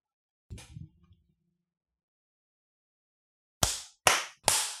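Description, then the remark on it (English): A sharp hand clap for recording sync rings out after a quiet pause, followed moments later by two more crisp claps in quick succession, each with a brief echoing decay and no voices. “Did you miss the clap”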